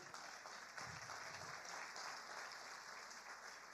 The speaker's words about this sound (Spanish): Dele un aplauso al Rey.